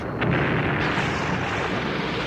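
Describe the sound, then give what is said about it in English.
A loud explosion in an apartment bursts in with a sharp crack, then rolls into a sustained, rumbling roar that fills the whole clip without fading. No voices are present. “Suddenly, there was a loud explosion and a blinding flash.”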